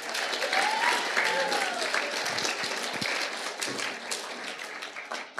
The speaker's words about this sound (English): Can we give her a big clap for putting everything together?